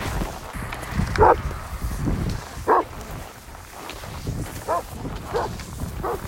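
A dog gives four or five short, sharp barks spaced a second or so apart before starting to run, hitched by a bungee leash to pull a cross-country skier through a winter landscape, over a steady outdoor rumble with faint rustling and shuffling movement.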